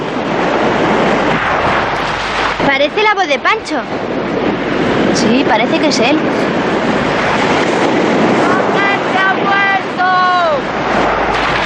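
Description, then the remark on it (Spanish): Ocean waves break in a steady, loud roar of surf that fills the whole scene, while a few people speak over the rushing water. “atención a las olas, porque Mercero sabía marcar muy bien las olas”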